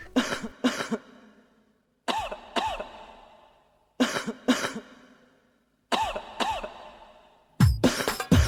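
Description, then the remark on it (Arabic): Pairs of sharp coughs by the film's actors, arranged without words as a track on the film's soundtrack album, repeat in a steady rhythm, roughly every two seconds, like a beat, ending in a denser flurry of overlapping coughs. No speech. “ومن الحاجات الطريفة واللي أنا شايفها كانت حاجة ذكية جدا من حميد إن في الألبوم ده وقت قرار منعه حميد وزع كحة الممثلين في الفيلم من غير ولا كلمة وقدمها للرقابة كنوع من الاحتجاج على القرار”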